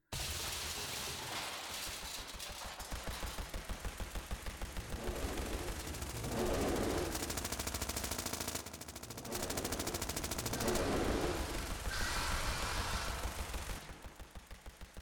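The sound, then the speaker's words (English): Sustained, rapid staccato gunfire rattles loudly for the whole stretch, bursts of automatic fire running together with only brief dips in intensity before easing slightly at the end. “Grant heard the hollow boom of the doors finally giving way, followed by the staccato sound of gunfire and shrieking monsters”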